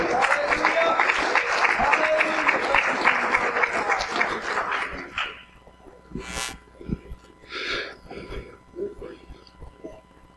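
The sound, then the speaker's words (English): A crowd claps steadily and densely for about five seconds as a hand clap of praise for the Lord. The applause then cuts off into quieter scattered sounds, breaths and murmurs. “Could you give the Lord a hand clap of praise?”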